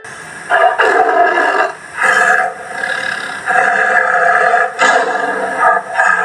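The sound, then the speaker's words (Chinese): A tiger roars loudly in several long, rough, growling surges that swell and fade over about six seconds, with no talking. “突然出现一只老虎”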